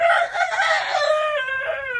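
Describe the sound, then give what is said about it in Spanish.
A rooster cackles loudly, one continuous, raspy call with wavering pitch that stretches over about two seconds, with no voices. “Está cagareando un gallo.”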